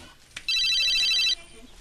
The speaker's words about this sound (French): Mon portable sonne. Il est où Tu l'as laissé sur le lavabo.